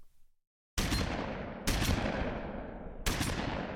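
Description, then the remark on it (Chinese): Three loud gunshots crack out in a city at uneven intervals after a brief silence, each a sharp blast followed by a long rumbling tail that carries into the next shot. No one speaks. “从那以后，城市里便这里那里响起了枪声。”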